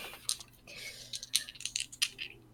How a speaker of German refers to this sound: Verborgen bleiben mhm. müsste ich drauf würfeln.